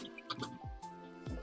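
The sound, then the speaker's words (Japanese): Two distinct water drips, each a quick plunk with a falling pitch sweep, separated by about a second, over a faint steady background hum. “しかも水滴に2回ぐらいミュートにされた。”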